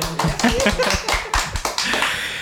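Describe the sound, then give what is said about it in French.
A group applauds a short radio report with dense, overlapping claps that hold steady for a couple of seconds, a few sharper individual claps standing out, with faint voices mixed underneath. “On peut l'applaudir.”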